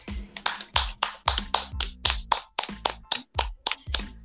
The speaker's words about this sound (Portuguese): Aplauso para a saga Star Wars.